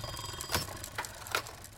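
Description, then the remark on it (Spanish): A key is slowly turned in a door lock, making three short, sharp metallic clicks of the lock mechanism spaced unevenly across a couple of seconds, faint against a quiet background with no voices. “Mientras lo hacía, pude escuchar el clic del mecanismo.”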